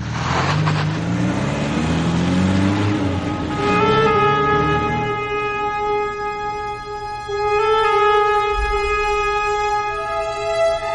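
A car engine starts up and revs, its pitch rising, then settles into a steady hum as the vehicle pulls away and keeps driving. No one speaks.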